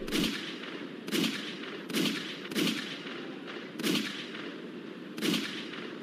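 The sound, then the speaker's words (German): Six loud gunshots are fired at Andres Escobar, ringing out one after another at uneven intervals, each a sharp crack followed by a short echoing tail, with no voices present. “Sechsmal wird auf Andres Escobar geschossen, der im Krankenhaus an den Schüssen stirbt.”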